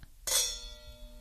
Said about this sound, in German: Wir stoßen aber einmal an.